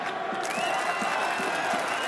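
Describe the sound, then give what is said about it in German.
A large arena crowd roars and applauds steadily, a dense wash of cheering voices and clapping that stays loud and unbroken throughout, with occasional whistles rising above it. “Ein begeistertes Publikum war nämlich eigentlich das Wichtigste überhaupt”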